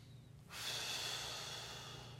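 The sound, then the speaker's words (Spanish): One long, forceful huff of breath pushed hard through the nose, loud. It starts abruptly after a brief pause and holds steady for nearly two seconds, with no talking. “Erech apaim significa, saben ustedes que la nariz, ¿sí? Es cuando uno respira, si uno está enojado, ¿cómo está uno?”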